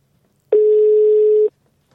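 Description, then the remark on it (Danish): A single steady telephone ringing tone on an outgoing call, one loud, clean beep lasting about a second, with no one speaking and near-silence before and after. “Så, så ringer vi.”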